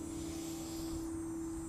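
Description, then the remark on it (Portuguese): Quiet outdoor ambience in a park in the middle of Toronto, with a steady low rumble of traffic and a faint constant hum, no voices, the background wash holding evenly throughout. “gente, desculpa o barulho externo, estou aqui em um parque no meio de Toronto”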